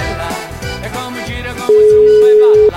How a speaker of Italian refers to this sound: Squilla, ma ancora non risponde. Ultimo squillo.